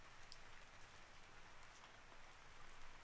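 Steady rain falls continuously, a dense hiss with scattered brighter drop taps across the upper range. Even throughout, with no voices.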